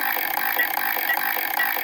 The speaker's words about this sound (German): Ich würfel